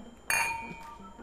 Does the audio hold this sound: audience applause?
no